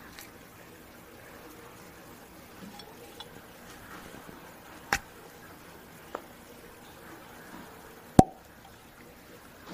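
A cork pulled from a 100-proof bourbon whiskey bottle: a couple of small squeaky clicks as it twists loose, then one crisp hollow pop near the end, with no talking.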